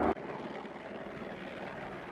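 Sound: helicopter flying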